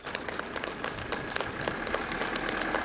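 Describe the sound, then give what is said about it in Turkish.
Steady applause from a small group as two babies, 8.5 and 13 months old, who recovered from coronavirus are discharged from hospital in Turkey; dense irregular claps running continuously at a moderate level for the whole stretch, with no voices standing out above it. “Taburcu edilirken alkışlarla evlerine uğurlandılar.”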